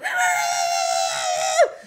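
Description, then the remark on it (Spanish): A person imitates a small dog's strained, squeaky barking: one sustained high, raspy yelp held for over a second and a half, ending in a short downward squeal. No words are spoken. “Pero parece, o sea, que les metieron algo en las cuerdas vocales.”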